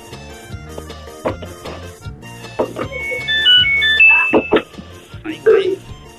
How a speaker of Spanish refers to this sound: ¿Esa fue la secadora? Es la secadora de ropa. De ropa. Ah, la de ropa.